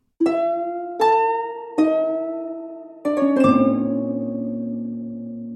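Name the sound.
eerie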